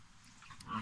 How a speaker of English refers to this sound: Um, you can probably hear my dog barking in the background here, but hey, that's that's fine.